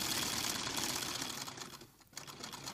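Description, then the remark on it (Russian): An old Singer sewing machine clatters as trousers are sewn on it, in a steady, rapid mechanical rhythm, dense and continuous, dipping briefly near the end before resuming. No one speaks. “Стрекочет машинка Зигнер.”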